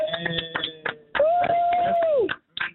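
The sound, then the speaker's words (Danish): A short burst of several quick, uneven hand claps, followed by a sustained vocal tone and a few more scattered claps at the end; clapping for a radio host after he sings a song about Paris. “Det er altid fedt at ringe nogen op i radioen, og så få en lille klap selv, selv som vært.”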